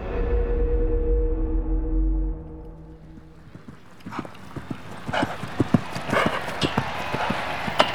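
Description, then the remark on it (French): A low, steady rumble fades out, then the hooves of a horse ridden by 22-year-old Prince Charles in a polo match start pounding in a quick galloping rhythm, growing louder, with sharp thuds on the ground. “À cheval, guindé dans son uniforme, le maintien impeccable et le visage concentré, le prince Charles, 22 ans, tente en vain d'inverser le cours de ce match”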